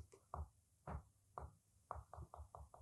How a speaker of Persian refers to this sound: با نوک پایش مثل دارکو به زمین میزد